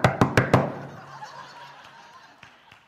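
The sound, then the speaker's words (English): Four quick, evenly spaced knocks rap on a door, loud and sharp, followed by a decaying tail and a couple of fainter taps near the end. “And then there is just simply the annoying knock”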